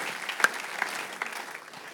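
Audience applause welcoming a speaker onto the stage fills the whole stretch, a steady dense patter of many hands clapping at moderate volume with a few sharper claps standing out, and no voices.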